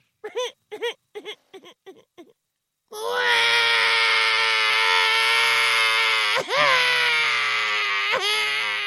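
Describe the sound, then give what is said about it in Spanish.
A baby cries: first a run of short, choppy sobs, then after a brief pause a long, loud, sustained wail with high harmonics, broken by a couple of quick catches of breath. “El jefe escuchó el llanto y abrió la puerta.”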